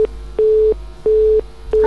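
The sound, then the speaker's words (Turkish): A telephone line tone, heard after the phone is answered, pulses on and off in steady, evenly spaced beeps of a single mid pitch, heard clearly and alone with no voices. “Bu sefer dayanamayacağım telefonu açacağım.”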